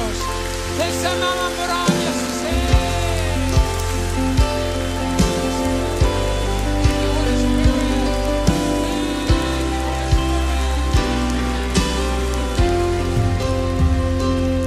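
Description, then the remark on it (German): Sustained, steady audience applause given for Jesus, a dense crackling wash that keeps going for the whole stretch, with a held keyboard chord and deep bass notes playing underneath. “Komm, wir geben Jesus nochmal einen mächtigen, mächtigen Applaus.”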